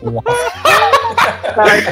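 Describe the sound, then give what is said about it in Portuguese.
A dog barks in several short, loud bursts, mixed with people talking over it. “Cachorro! Cachorro!”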